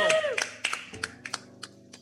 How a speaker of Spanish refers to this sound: Un gran aplauso para nuestro nuevo compañero de trabajo.